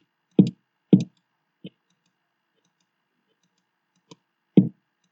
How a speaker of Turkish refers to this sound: Ama Bluetooth hoparlörüm tam olarak böyle bir bateri kiki, bateri vuruş sesini doğru düzgün veremiyor. Bunun için özür dilerim. Yani birkaç kere basayım tekrar. Bu tip bir ses çıkıyor.